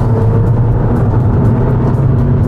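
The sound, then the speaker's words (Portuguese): A car engine drones loudly and steadily, a deep continuous rumble with road noise, as the car accelerates under power during a test drive with no one speaking. “Vamos acelerar um pouquinho.”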